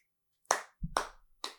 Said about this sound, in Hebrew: את יכולה למחוא כפיים רגע? למחוא כפיים? כן.